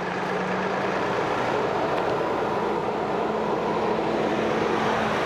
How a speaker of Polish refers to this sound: Hałas i duże natężenie ruchu na Dwójce najbardziej zdają się dokuczać nauczycielom i uczniom. Dyrekcja szkoły wielokrotnie prosiła o montaż ekranów akustycznych między budynkiem szkoły a ruchliwą trasą.